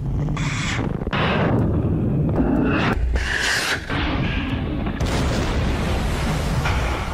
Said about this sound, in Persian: فرماندهان سپاه دفاع از جزیره های ایرانی با شلیک کوبنده موشک ها و آتش پیش برنده در ساحل است